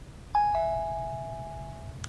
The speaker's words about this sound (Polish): Ustawienie dźwięku. Długi dzwonek.